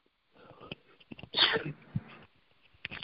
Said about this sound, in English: Sorry about that. I had to get that sneeze out, and it was not a COVID sneeze.